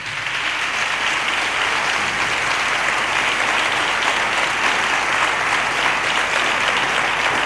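Sustained applause from an audience in Seville for a flamenco scholar who will receive the Medal of San Fernando, a dense, steady wash of many hands clapping at an even loudness for the full seven seconds, with no voices standing out.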